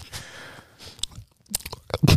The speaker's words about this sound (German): Das ist das Schmatzgeräusch